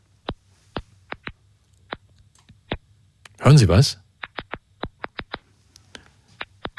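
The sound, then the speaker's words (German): Sharp, tiny clicks recorded with microphones held to tomato or tobacco plants pop irregularly over a low steady hum, scattered one by one with short gaps; midway a voice briefly speaks before the faint clicking resumes. “Das sind so kleine Klickgeräusche, die dort aufgenommen worden sind.”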